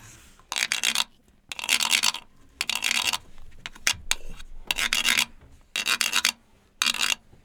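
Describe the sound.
A wooden rasp is scraped in repeated short bursts, about seven ratchety strokes with brief pauses between, imitating the croaking of a frog. Fairly loud, with no talking.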